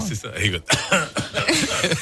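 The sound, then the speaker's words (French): A short, sharp cough bursts out partway through, with some throat clearing, surrounded by conversational speech from a couple of voices. “Il suffit que quelqu'un tousse pour que ce soit le vent de panique en ce moment.”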